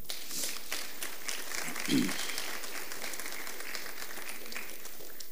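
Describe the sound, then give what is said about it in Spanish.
An audience applauds the Lord during a Spanish-language sermon in a steady, dense patter of many hands clapping, sustained throughout at moderate loudness with a slightly echoing quality. “Denle un aplauso al Señor.”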